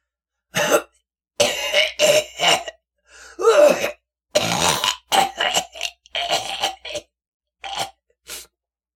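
A man who has just lit a cigarette has a prolonged fit of harsh, hacking coughs, around ten bursts in uneven clusters with brief gaps, fairly loud, some ending in a rough throat-clearing rasp, with no talking.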